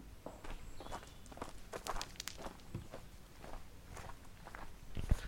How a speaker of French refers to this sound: Le petit chant des oiseaux, l'air frais, les jambes qui font mal, les pieds qui heurtent le sol, c'est parfait.